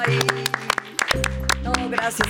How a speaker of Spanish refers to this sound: Bueno, pues Blanca Guerra en la hora nacional. Un aplauso, por favor.